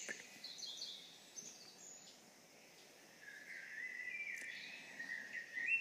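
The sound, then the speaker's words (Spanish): Soft, continuous chirping of birds inside a temple, fairly quiet, with overlapping high trills drifting in and out over a faint ambient hiss; no voices. “Visitan un cuarto y otro cuarto observan las flores, observan los pájaros que hay dentro del templo.”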